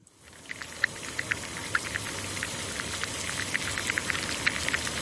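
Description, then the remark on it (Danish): Eggs boiling in a pot of water for 10 minutes: a steady hissing rumble scattered with irregular bubbling pops and ticks, continuing evenly throughout with no voices. “Og her er lyden af æg, der koger.”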